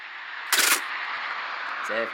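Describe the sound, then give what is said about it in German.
A roadside speed camera flash effect: one sharp, bright burst of noise lasting about a quarter second, over a steady hiss, followed near the end by a brief low buzzing tone. “Na, warte mal kurz, ich muss mal blitzen hier.”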